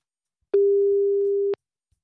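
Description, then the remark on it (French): A telephone busy tone after a hang-up: a single steady mid-pitched beep lasting about a second, starting and stopping abruptly, with no voices. “Madame, ça ne sert à rien de raccrocher au nez des gens.”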